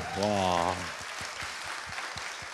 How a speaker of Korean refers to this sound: 박수 한번 주세요. 박수 주세요.